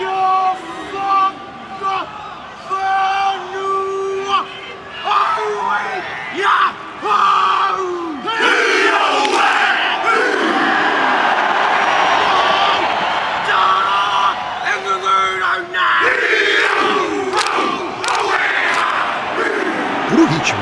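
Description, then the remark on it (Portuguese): A large group of students in New Zealand chants a Maori haka in unison, rhythmic shouted calls and forceful yells rising to a loud, energetic climax, with crowd noise throughout. “Vamos deixar um exemplo de estudante na Nova Zelândia fazendo haka.”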